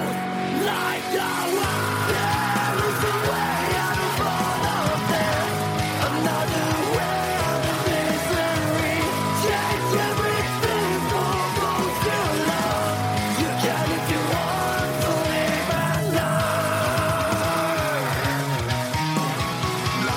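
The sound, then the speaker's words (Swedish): A rock song by a band from Uppsala, released on 25 February, plays from a recording at a steady, loud level throughout, with dense guitars, driving drums and a sustained high vocal or lead line cutting across the mix. “… från Uppsala, släppte … den 25 februari”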